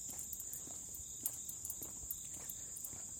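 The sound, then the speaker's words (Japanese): A steady, high-pitched chorus of insects chirps continuously outdoors in a grassy vacant lot in Tokyo, fairly soft and layered, with faint scattered footsteps or rustles underneath and no one talking. “割とそうですね、結構確かに、都内としては、なんか虫鳴いてんなっていう感じがしますね。やっぱ空き地とか草生えると、ね、こんな感じになるんだと思いますね。”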